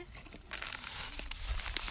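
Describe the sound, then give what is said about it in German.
A plastic bag containing dye is shaken, giving off a steady, loud crinkling rustle that starts after a brief quiet moment and continues to the end, with no voices. “Und jetzt schüttel das mal.”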